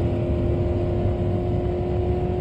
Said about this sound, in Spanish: El sonido del motor sonaba cada vez más y más fuerte, hasta que se desvaneció por completo.